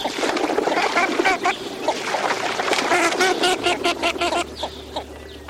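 A busy chorus of northern shoveler ducks, dozens feeding side by side on a pond, calling with many short, nasal, repeated notes overlapping at a steady moderate loudness, over a faint low background hum and some splashing.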